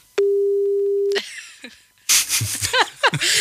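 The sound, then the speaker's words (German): A single steady, one-second telephone ringback tone sounds clearly on the line as a call back is placed, followed by a short pause and then noisy laughter and voices. “Ich rufe jetzt zurück.”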